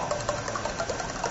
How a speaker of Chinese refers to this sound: 然后指击音，指击音又就是顾名思义，就是他光靠手指打，他不吹， 啊， 这种声音。